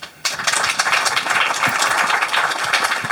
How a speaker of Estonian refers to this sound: aitäh, sellega on meie arutelu lõppenud, ma arvan, et meie tore paneel on ära teeninud sellise suure aplausi.